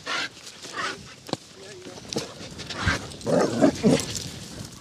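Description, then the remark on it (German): Two dogs meet outdoors on a walk while passing each other, with panting, snuffling and a few rough, growly vocal bursts as they briefly tussle, one young dog keen to scuffle while the other stays relaxed, the scuffle peaking toward the end. “So, jetzt haben wir hier einen Hundefreund, an dem wir jetzt mal vorbei müssen.”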